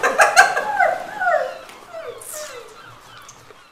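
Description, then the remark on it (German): A gull cries out several times in harsh, descending squawks, loud at the start, then a few thinner, fainter calls trail off toward the end. “Ohne also, Möwe!”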